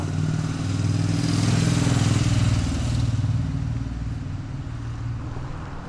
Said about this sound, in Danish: De unge kører rundt på busstationen på deres knallerter